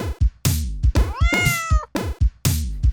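A cat meows several times in quick succession, loud, with short clipped calls around one longer, wavering meow in the middle. No one speaks.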